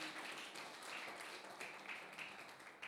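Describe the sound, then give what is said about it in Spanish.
A prayer-meeting audience applauds steadily to welcome a couple attending for the first time, many hands clapping in a dense, continuous patter that holds for a few seconds, fairly soft. “Ok, denles un fuerte aplauso acá una parejita.”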